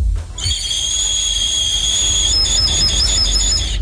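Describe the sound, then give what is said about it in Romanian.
A shrill, piercing whistle imitating a kestrel's cry starts after a brief pause and holds loud and steady, then wavers in quick pulses toward the end, with low rumbling noise underneath. “și venea Uliul și venea și prietenul lui Vindereu pentru a speria păsările celelalte.”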